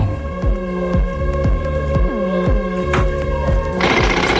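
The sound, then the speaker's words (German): A jackhammer played from a tape recording pounds in a steady, regular rhythm of heavy thuds over a constant droning mechanical hum, with a brief hissy burst near the end and no voices. “Der Presslufthammer war gerade auf dem Band.”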